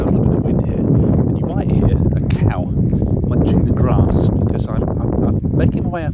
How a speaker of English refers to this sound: I'm now uh, going to walk up a bank. We might catch a little bit of wind here. I'll try and. It's obviously being near the sea.